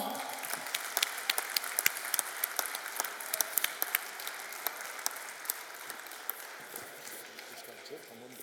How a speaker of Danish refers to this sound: Så uh, tusind tak til Spar Nord. Giv Spar Nord en stor hånd.